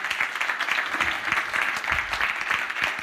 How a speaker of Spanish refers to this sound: Si se van a dar un aplauso, dalo.